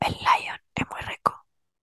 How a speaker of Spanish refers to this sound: Eh, bueno, yo estoy, estoy comiendo una cajita de, de em, cereales. Miren, escuchen.